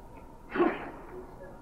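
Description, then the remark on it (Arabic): A single sharp sneeze bursts out midway, fairly loud, then fades quickly into a quiet room hum with no talking. “رحمك الله”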